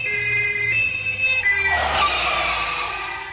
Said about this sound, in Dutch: Door de open balkondeuren klonk het loeien van de sirene beneden op straat